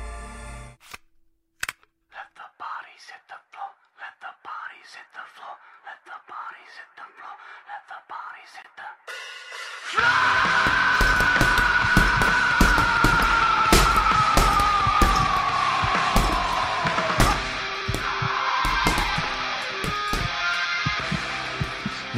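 Punches pound a punching ball set up backstage in a community hall in a rapid, irregular flurry of sharp thuds, starting quietly, then nearly masked once loud, hard music suddenly kicks in.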